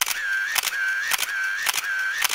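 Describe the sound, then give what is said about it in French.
A disposable camera's shutter snaps four times at a steady pace, each click followed by a thin, continuous whine of the film winding on, clear with no voices. “Ce qui est à la mode, ce sont les photos moches mais authentiques, comme on en faisait avec les appareils photo jetables.”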